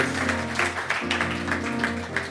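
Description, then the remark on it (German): An audience at a live show at the Ella und Louis claps steadily in a dense, crackling wash of applause, with a low sustained hum of music underneath, and no one speaks. “Applaus.”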